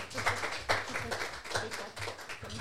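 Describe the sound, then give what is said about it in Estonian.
An audience applauds steadily to thank a participant, a dense patter of many hands clapping at once, moderately loud and sustained for a few seconds without any talking. “teeme ühe suure aplausi”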